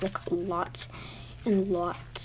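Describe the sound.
Wet, sticky squelches of slime being squished by hand, a few brief squishy bursts between and under a person talking nearby.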